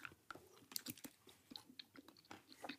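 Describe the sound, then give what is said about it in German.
Crunchy chewing with repeated sharp bites and cracks, as someone munches on nougat chocolate packed with whole nuts; irregular rhythm, no talking. “auf und würde jetzt reinbeißen.”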